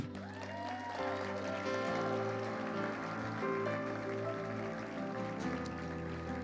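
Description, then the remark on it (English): A crowd claps steadily for several seconds, giving Jesus a clap, a dense wash of applause layered over sustained music with held keyboard-like tones. No one speaks. “Come on, why don't you give Jesus a clap?”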